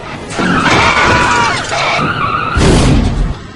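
Tires screech in a long, wavering high-pitched squeal for about two seconds, then a loud car crash bursts in with a heavy impact and clattering noise that carries to the end; a drunk driver crashing into a car at night.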